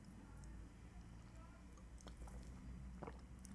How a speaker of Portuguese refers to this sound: Engasguei-me com ar e me vomitando todo, vou beber água.